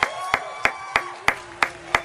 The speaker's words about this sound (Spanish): Y en una tarde donde me pongo de pie para aplaudirle al señor José Vicente Segarra, ¿verdad?